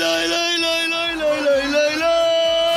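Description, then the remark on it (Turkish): A single loud voice imitates a football match crowd chant, singing the syllable "lay" over and over in a steady, sustained melody without pause. “Hani o maç sesi var ya.”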